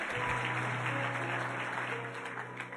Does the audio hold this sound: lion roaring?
no